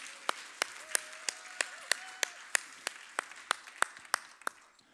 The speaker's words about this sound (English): I have some very special Americans and rural Saskatchewanians in the room today as my whole family is here. So, we will give my family a round of applause in the middle of the room.